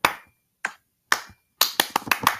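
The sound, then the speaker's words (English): Sharp hand claps from people trying to clap in sync on a countdown, no talking: three single claps spaced about half a second apart, then a quicker run of around six claps in rapid succession, each crisp and bright. “You gotta you gotta clap at the same time, okay?”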